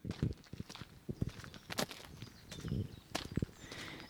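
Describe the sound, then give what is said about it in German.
Crunching footsteps on a gravel hiking trail near Bergün in the Bündner mountains, steady, with scuffs and small stones shifting underfoot, a faint breeze and a bird in the open air. “Jetzt gerade bin ich irgendwo im Nirgendwo in der Nähe von Bergün in den Bündner Bergen auf einem Wanderweg was es auf Google Maps nicht gibt,”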